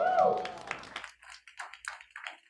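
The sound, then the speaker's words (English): A loud voice rings out briefly, then a group claps for the Lord Jesus in quick, uneven bursts that carry on to the end, crisp and moderately loud. “Clap for the Lord Jesus.”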